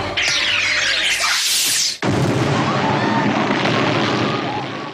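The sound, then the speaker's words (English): A rising, whistling whoosh builds for about two seconds, then a loud explosion bursts in as a gas-filled house blows up when a lighter is lit, roaring on as a dense, crackling rumble to the end, with no talking. “And then mm-hmm. explosion.”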